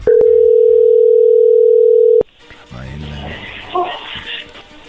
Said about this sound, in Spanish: A ver, no haga ruido, ahí se está marcando.